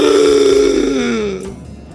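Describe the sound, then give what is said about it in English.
A voice imitates a gasp for air: one loud, strained, croaky breath drawn out for over a second, its pitch sagging slightly before it breaks off into quiet. “I'm gasping, gasping for air. I'm breathing like this.”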